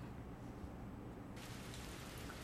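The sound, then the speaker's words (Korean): Steady rain hisses throughout, then abruptly grows heavier and brighter partway through, becoming a dense downpour. No voices are heard. “어 갑자기 비가 오네.”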